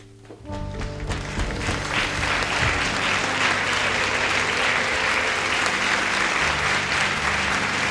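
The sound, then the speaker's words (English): A crowd bursts into applause after a brief lead-in, steady, dense clapping filling the room at full volume and holding through to the end, with no one speaking over it. “All right, give it give it up”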